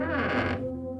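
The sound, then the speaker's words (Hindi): A single slow, drawn-out creak of a room's door being slowly opened, loud, with strained tonal groaning that fades into a low lingering hum, no voices present. “जब मैंने उस कमरे का दरवाजा धीमे से खोला”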